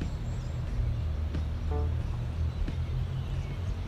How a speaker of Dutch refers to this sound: En het geluid op de achtergrond is een rivier die hier loopt. Dus komt uit de berg komt het water. Het stroomt zo heel langzaam zo door het hele dorp hier.